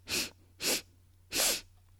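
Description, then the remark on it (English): Three short, sharp nasal sniffs in quick succession, the last slightly longer, with no talking and a faint low hum underneath: a person inhaling through the nose in a breathing exercise (bunny breath), before exhaling through the mouth. “Inhaling three quick sniffs, and exhale with your mouth.”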